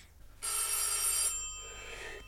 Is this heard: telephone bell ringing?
yes